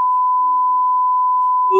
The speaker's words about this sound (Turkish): Abi, öyle bipleyelim istersen